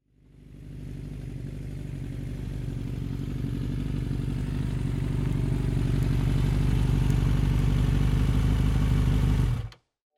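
A motorbike engine hums steadily, its low rumble building slightly as it rides along for about nine seconds before cutting off abruptly, on a ride out to eat in Hanoi, Vietnam. No one speaks.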